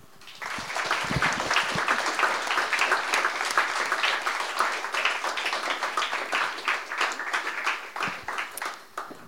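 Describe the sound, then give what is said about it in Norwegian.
An audience breaks into sustained applause for a panel after a discussion, a dense steady patter of many hands clapping for several seconds before easing off slightly near the end, with no speech over it. “En stor applaus.”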